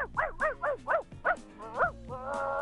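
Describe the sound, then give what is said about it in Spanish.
A person imitates the yappy barking of a small, jumping dog, a quick series of short, high, arching yelps in an uneven bouncy rhythm, ending in a held nasal whine, fairly loud. “¿Y cómo sería uno de, de perro chico, de perro saltando?”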